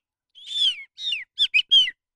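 Small birds chirp in a short, clear burst: two longer, falling whistled notes followed by three quick, bright chirps, with no voices or other noise around them.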